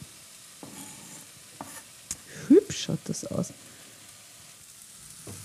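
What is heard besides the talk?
food frying and sizzling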